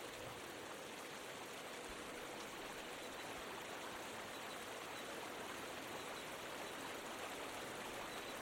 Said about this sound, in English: A creek burbles nearby, spilling into a waterfall.